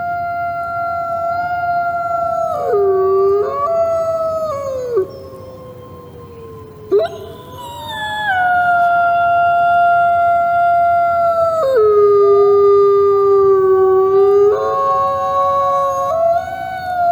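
Several wolves howl together in a sustained chorus, their long voices rising and falling and overlapping, with a brief dip midway before the pack swells again, loud and clear with no one talking.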